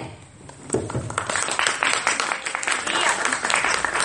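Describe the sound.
A large audience breaks into loud, sustained applause after a brief quieter moment, dense clapping continuing steadily to the end with some voices mixed in.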